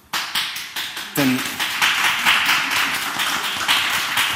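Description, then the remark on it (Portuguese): A few separate handclaps quickly swell into steady audience applause, a dense, bright wash of many hands clapping that holds at a fairly loud level to the end. “Palmas para ela, bem merece.”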